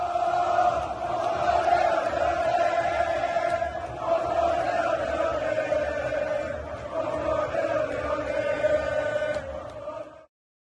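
A football crowd chant played as a channel jingle for a new member: a loud sustained roar of voices in unison holding a steady tone with rhythmic swells, continuing for about ten seconds before cutting off abruptly.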